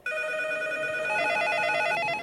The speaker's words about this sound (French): Le lendemain, les téléphones de Sony Computer Entertainment n'arrêtent pas de sonner.